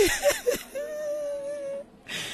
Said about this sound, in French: Ça lui fait du bien de pleurer. Ça l'aide à surmonter la perte du nouveau-né.